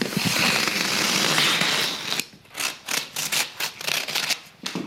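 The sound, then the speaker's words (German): Loud paper rustling as a parcel of fine paper from the dealer JPP, John Purcell in London, made at St Cuthbert's Mill, Somerset, England, is opened: a long continuous tearing or crinkling sweep, then a run of quick separate crackles and rustles as wrapping is pulled open. No one speaks. “Mal gucken mal, ob das nicht in drin auch beschädigt ist, weil das ist immer so eine Sache mit Papier aus aller Welt”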